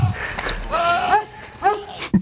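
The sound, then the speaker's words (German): A goat screams twice in strained, wavering, almost human-sounding cries: a long drawn-out wail, then a shorter one, with a little background noise and a brief thump at the end. “weil sonst würden die Nachbarn ja denken, ja, das ist hier wieder die Ziege, die schreit jetzt wieder herb, da passiert keinem was.”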